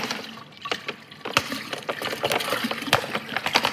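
Water pours steadily into a container with a bright, splashy rush, broken by irregular gurgles and small splashes. It's fairly loud, with no voices.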